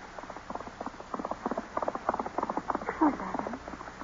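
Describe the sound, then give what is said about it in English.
Rapid, rhythmic hoofbeats of Master Hindley's best horse galloping away, taken by Heathcliff: a steady stream of sharp thuds that holds fairly even throughout, with a brief louder burst near the end. “Heathcliff's taken Master Hindley's best horse. He's gone.”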